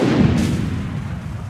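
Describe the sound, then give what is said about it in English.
A single loud blast from an old cannon at Chalmette Battlefield, its heavy boom rolling into a deep, rumbling echo that slowly fades away. No voices are heard. “Don't play with them old cannons, cause they still can shoot for real.”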